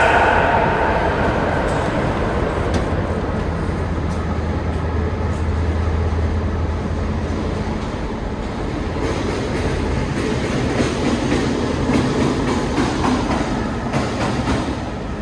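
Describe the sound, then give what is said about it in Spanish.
A passenger train on the Retiro–Tigre line in Argentina rolls steadily along the rails with a continuous low rumble and rattling clatter, a sustained loud drone with occasional rhythmic clicks of wheels over track joints. No one speaks. “Leopoldo Lugones aborda el tren Retiro Tigre con un frasco de cianuro en su saco.”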